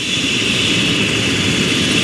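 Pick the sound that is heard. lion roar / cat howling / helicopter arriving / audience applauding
helicopter arriving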